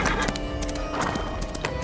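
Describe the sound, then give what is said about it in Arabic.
A horse's hooves clip-clop in a quick, uneven rhythm, fairly loud, while the horse lets out a neigh over the steps as it is unhitched from a carriage. No one speaks. “اخذ السندباد الخنجر من يد العجوز وهجم على العربه مرغما اولا فك الحصان عن العرب”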